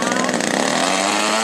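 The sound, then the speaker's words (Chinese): A domestically made medium-to-large forestry drone's small engine revs hard for takeoff from a runway during a test flight, a loud, steady buzzing roar with a harsh, chainsaw-like whine held at high power throughout. “无人机在跑道上蓄势待发，加足马力后往天空直飞而去。”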